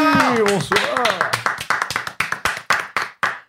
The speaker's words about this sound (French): Un tonnerre de triomphe d'applaudissements